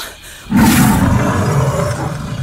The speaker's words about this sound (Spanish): Una manada de leones.